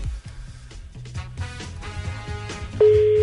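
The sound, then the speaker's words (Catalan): Background music plays with a bouncing bass line, then a loud, steady telephone ringing tone cuts in near the end and holds unbroken as a call placed live on the radio goes unanswered. “agafa el telèfon, tio, que sé que estàs escoltant la ràdio, joder.”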